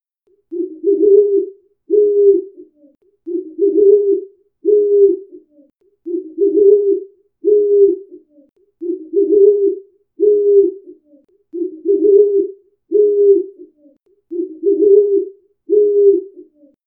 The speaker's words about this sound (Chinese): 夜深了，猫头鹰开始了一天的活动。听，这是猫头鹰的声音。